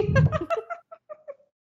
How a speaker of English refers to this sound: Ooh. that was the cat yeah sorry